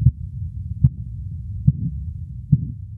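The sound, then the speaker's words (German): Muffled, low thumping pulses of blood flow heard through a stethoscope under an inflated blood pressure cuff during a blood pressure measurement: four regular beats about a second apart over a constant soft rushing whoosh, fairly quiet with no voices. “Die legen ihm dann Manschetten an, pumpen die auf und hören mit dem Stethoskop auf die Geräusche vom Blut”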